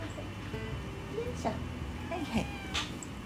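A cat meows several times in quick succession, short rising-and-falling cries over a low, steady background hum.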